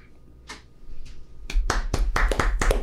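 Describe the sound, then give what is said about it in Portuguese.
Two isolated hand claps, then a quicker burst of sharp, uneven clapping that grows louder and keeps going to the end, like a small group applauding over a low background rumble. “Palmas.”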